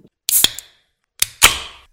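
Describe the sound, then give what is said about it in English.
A can of Double Panda beer cracked open twice, each time a sharp metallic click followed at once by a bright, hissing burst of fizz that fades over a fraction of a second. No talking. “I'll allow it right, let's just let's crack open our double panda.”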